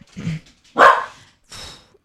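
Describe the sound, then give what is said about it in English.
A person's own dogs bark in three short, sharp bursts over about two seconds, the middle bark loudest, with brief silences between them and no talking. “those are my dogs.”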